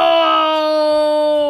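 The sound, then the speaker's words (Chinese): A voice imitates a lion's roar, as the child playing the lion in a game of tag roars while chasing the others, one loud, sustained, steady-pitched cry, more like a cute drawn-out call than a deep growl, with no other talking. “这个游戏规定，当鬼的狮子啊，要一边发出吼的声音，一边追着大家跑。”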